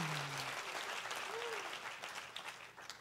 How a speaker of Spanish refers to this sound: Yo creo que si ese es el aplauso al Señor, usted debe de hacerlo un poco mejor.